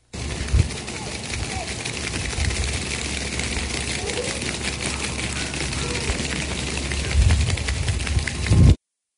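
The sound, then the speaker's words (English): A flock of geese running down a paved street, from a popular YouTube video: a dense, continuous clatter of quick slapping footfalls for several seconds, with a few heavier low thumps and a louder burst at the end. “That is that is a flock of geese running down a paved street, which Eric.”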